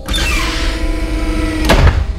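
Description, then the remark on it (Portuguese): A mechanical rattle and creak of a jammed doorknob being worked back and forth, followed by a sharp clack near the end as the door gives way and swings open, with no talking. “eu vou abrir a porta. A maçaneta tá travada, mas o Sefari pensa: ah, dois pra lá, três pra cá. E aí ela abre.”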